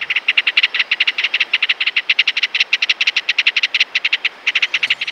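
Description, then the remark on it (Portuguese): A ringed kingfisher gives a loud, shrill rattling call, a fast, steady run of harsh notes that continues for several seconds with only a brief break, clear with no voices. “E aí, quem adivinhou quem é o dono dessa voz estridente?”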